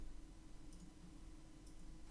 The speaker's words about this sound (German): ich gebe es kurz ein, tut mir leid für die Tastaturgeräusche.